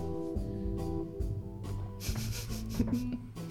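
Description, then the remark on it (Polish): Fingers tap on a table in an irregular series of soft, dull knocks, mixed with a brushing, scraping texture and a low steady hum underneath. No one speaks. “Ja tutaj tego nie można nie słuchać, ale stukam palcami o stół.”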